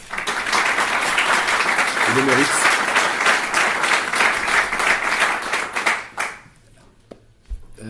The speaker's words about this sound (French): je pense que là aussi vous pouvez les applaudir parce qu'ils ont fait du très très bon travail.